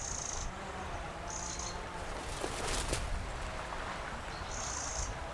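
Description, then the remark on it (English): A wren's alarm call from ivy-covered willows beside a stretch of bramble along a field edge by a river: three short, dry, buzzy rattles at a high pitch, spaced a second or more apart, over a steady hiss with no talking. “It's almost like an alarm call, so maybe he's a bit cross with me, or she.”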